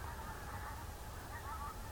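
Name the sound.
flock of geese honking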